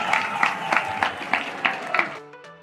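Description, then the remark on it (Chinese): A burst of applause with a rhythmic pulse, about seven strong beats like an audience clapping in time, welcoming the founder of Pentopia, holding a steady level before cutting off into a brief faint tone. “我们热烈鼓掌，欢迎创办人。”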